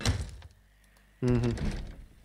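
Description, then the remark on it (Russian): A dull thunk from someone trying a locked door. After a short quiet pause comes a louder, buzzing tonal sound. “Открыть дверь. Не лезет. Она закрыта.”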